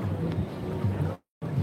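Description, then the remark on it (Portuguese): Steady, heavy low rumble of wind buffeting a microphone, loud, cutting out abruptly for a moment near the end before the roar returns. “Me dá o um retorno da, do áudio, como é que tá, se tá me ouvindo bem, se o vento tá incomodando, tá?”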